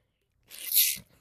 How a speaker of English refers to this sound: I'm going to sneeze. I'm sorry.